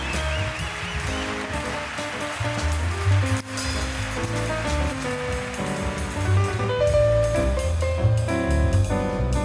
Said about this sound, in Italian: È la folla, chiaramente, in delirio.